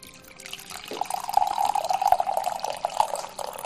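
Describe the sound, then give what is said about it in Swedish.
A steady stream of tea pours into a cup for about three seconds, a bright gurgling trickle that starts abruptly and stays clear, with no talking over it. “Vad är det jag hör? Det låter som te.”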